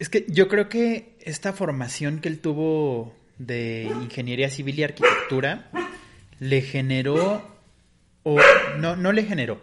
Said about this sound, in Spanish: Eh, si escuchan, es mi, perrito que está ladrando.